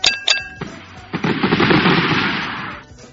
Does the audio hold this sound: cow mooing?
no